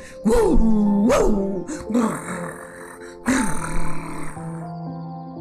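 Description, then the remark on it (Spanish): A voice imitates dogs growling and barking, with three or four loud, rough bursts rising and falling in pitch, separated by short pauses. “los perros confundidos volvieron a ladrar más fuerte a ver si los dueños venían y a ver si esta liebre se asustaba.”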